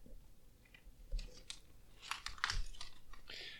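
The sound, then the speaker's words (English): Crisp paper rustling and crinkling in a few irregular bursts, louder toward the middle, with no talking. “Please excuse the paper.”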